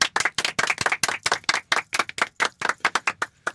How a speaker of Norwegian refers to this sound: vi, vi klapper for oss sjøl.